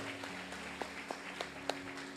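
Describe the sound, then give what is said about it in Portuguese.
An audience applauding God, heard as a handful of soft, evenly spaced claps that stand out faintly above a steady low hum. No one speaks. “Aplaude a Deus por isso.”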